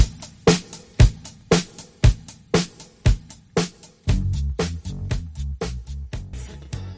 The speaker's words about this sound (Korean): 네. 예. 자 노래 듣겠습니다.